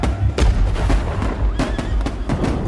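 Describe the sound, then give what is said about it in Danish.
Rifle fire cracks out in sharp, irregular bursts, about half a dozen, over a loud, continuous low rumble of shell explosions and booming battle noise, as bullets and shells hammer down on ramparts and soldiers during an attack on Danish positions. “Geværkugler og granater hamrer ned over både volde og soldater og smadrer alt i nærheden.”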